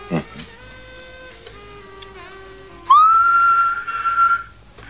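Someone whistles toward a tiny keychain shaped like a woman's face with bright red lips, a loud, sustained note that swoops upward and then holds steady for about two seconds, after a stretch of faint, wavering tones.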